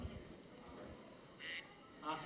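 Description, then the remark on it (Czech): A person imitates a duck with two short, nasal quacks spaced about half a second apart. The voice is fairly loud. “Slyšeli jsme kachnu”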